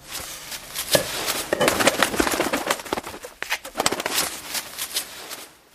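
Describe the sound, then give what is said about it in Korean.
A single crow on a balcony flaps its wings in loud, irregular bursts of papery fluttering, limping and trying to jump up, the beats clustering in quick flurries with brief pauses between them for several seconds. “저녁 준비하려고 부엌에서 분주히 움직이는데 푸드덕거리는 소리가 들려 고개를 돌렸다. 어찌된 일인지 베란다에 까마귀 한 마리가 다리를 절룩이며 뛰어오르려고 애를 썼다.”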